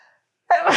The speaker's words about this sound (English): Bless you. Excuse me. Birthday sneeze. Birthday sneeze.